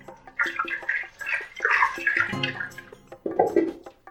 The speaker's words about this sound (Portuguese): Você joga no voal se quiser jogar um pouquinho de água ainda no liquidificador para você limpar o coco que, que ficou nele, porque como ele é bem gorduroso, né, ele gruda.